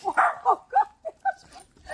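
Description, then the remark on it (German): A dog barks in a quick run of about six short, sharp yaps, moderately loud, with a brief pause before the last bark. “Der, hat der, bellt der hat einfach geballt.”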